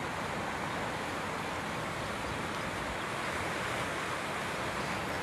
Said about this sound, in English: I am in Glenwood Springs. I have this beautiful, amazing river behind me.